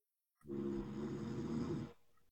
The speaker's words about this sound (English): It's literally a snore. What the fuck?